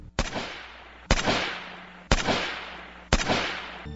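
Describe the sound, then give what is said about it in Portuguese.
Four loud, sharp gunshots ring out about a second apart, each cracking sharply and then trailing off in a reverberant echo before the next. No one speaks. “Os tiros, porém, não acertam.”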